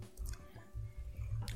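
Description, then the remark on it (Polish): A cat jumps on a cardboard box: dull, hollow thumps and scuffling on cardboard, with a few crackly bursts as it lands and shifts around on the box. Fairly quiet and irregular, with no talking. “Przepraszam za te hałasy, ale jeszcze nie zdążyłem sprzątać kartonu i mój kot właśnie teraz po nim skacze.”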